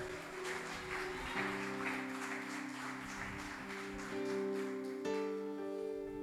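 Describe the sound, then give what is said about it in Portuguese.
An audience claps steadily, the applause a dense rhythmic wash under sustained keyboard chords that shift partway through, continuing without any voices, applauding the name of the Lord Jesus at an evening church service. “Você pode aplaudir o nome dele nessa noite?”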